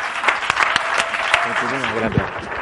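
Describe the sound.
A crowd claps steadily in a dense, continuous wash of applause, with a few louder individual claps and a voice briefly speaking partway through.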